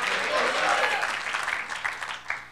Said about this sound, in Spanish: Démosle un aplauso al Señor ahora. Gloria a Dios.